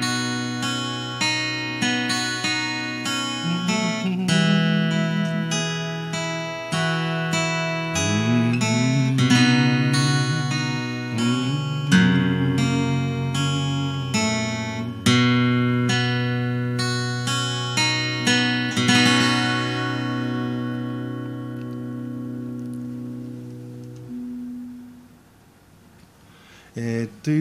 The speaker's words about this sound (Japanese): この今今この音を音今私が入れたあの歌はどうでもいいんですけど、えー、ギターはのコードっていうか音ですねあのアルペジオもにしようとストロークにしようとあの好きにしたらいいと思うんですけど